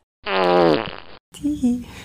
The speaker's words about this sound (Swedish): Och sen mitt i samtalet så lägger den av en brakskit ja. bara sådär. En sån jävla hejdundrans prutt.